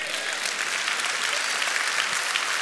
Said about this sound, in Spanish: Den un aplauso a Cristo.